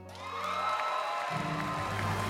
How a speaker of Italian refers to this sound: applauso. E di nuovo.